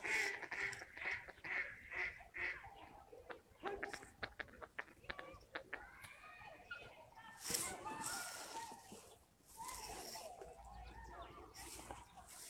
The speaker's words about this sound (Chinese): 大家刚才听到的，就是绿头鸭的叫声。